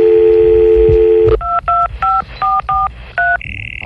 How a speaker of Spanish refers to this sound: No, le, le, le voy a marcar. Permítame, le marco.